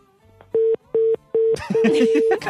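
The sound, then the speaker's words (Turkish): A telephone busy tone after a caller hangs up beeps in three short, evenly spaced pulses, then a longer steady beep continues under a burst of voices and laughter. “sesinizi alamıyorum deyip pat diye yüzümüze.”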